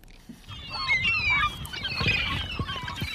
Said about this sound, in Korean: 갈매기들 소리입니다. 얘들이 지금 막 수다 떨면서 어디론가 날아가고 있는데 오늘 보물소리 미리 듣게 한 거예요.